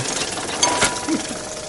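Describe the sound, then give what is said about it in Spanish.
An electromechanical tooth-processing machine starts running after its small door closes on a tooth put inside, with a steady, dense mechanical whir and rattle, broken by a few sharp clicks and clunks, moderately loud. “Se cierra y el mecanismo comienza a funcionar.”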